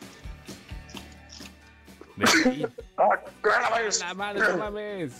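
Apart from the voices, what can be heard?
sneeze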